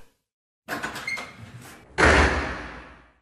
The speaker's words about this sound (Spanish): Vaya hombre, vio cómo tiró la puerta